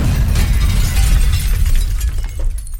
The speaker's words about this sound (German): In einem der Mülleimer ist eine Rohrbombe hochgegangen. Der Mülleimer wird komplett zerrissen und die Decke von diesem Pfandraum wird nach oben gedrückt.